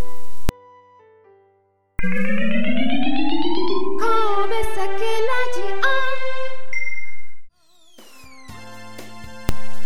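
A short, bright theme jingle for the Kobe Sake Radio program, with rising synth tones, chime-like tinkles and a quick pause before a final flourish, loud and upfront with no voices.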